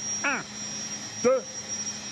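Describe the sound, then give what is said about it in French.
Large industrial refrigeration compressors making cold, 30 metres underground, drone steadily, a constant low hum with a faint high whine, while a man speaks a couple of short words over the noise. “Et le bruit que vous entendez, c'est le bruit des compresseurs qui vont fabriquer le froid.”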